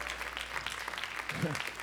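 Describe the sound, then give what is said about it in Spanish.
An audience claps steadily, a dense wash of overlapping hand claps with a brief voice rising through it near the end. “Te están aplaudiendo a ti por aguantar tanto.”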